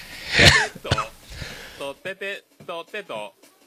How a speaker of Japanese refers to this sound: うわあ、咳出た。